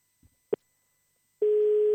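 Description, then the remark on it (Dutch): A couple of soft clicks, then a steady electronic telephone ringing tone starts and holds. It is an outgoing call from the Adem 105 radio show to a listener, live on air, ringing on the line, with no one speaking. “Binnen nu in een paar seconden gaat je telefoon over.”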